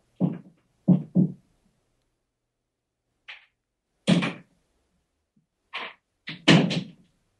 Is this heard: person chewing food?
no